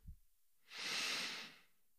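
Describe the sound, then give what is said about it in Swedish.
A single slow, deep inhale into the belly, airy, swelling over about a second before fading, preceded by a brief low thump. “Vi andas ju oavsett vi tänker på det eller inte, men det är också lätt hänt att vi hela tiden springer med andan uppe i bröstet och kanske kan du här ge dig själv några sekunder och bara ta ett djupt andetag in i magen.”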